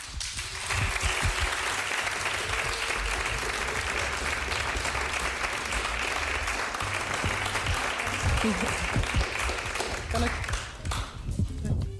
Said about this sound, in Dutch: Een hartelijk applaus voor mevrouw Beryl Biekman.